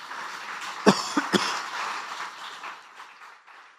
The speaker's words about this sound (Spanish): Dele ese aplauso a él.